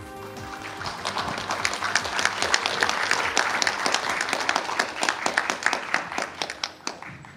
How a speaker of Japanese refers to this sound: それでは盛大な拍手でお迎えください